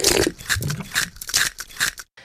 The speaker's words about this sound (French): Chaque matin, il avale son café en mâchouillant une biscotte